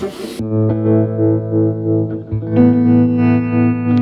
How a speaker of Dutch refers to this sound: De tremolo, hè? Ja, mooi. Heel eenvoudig dingetje van uh, eh, Maleko, want die zijn lekker klein.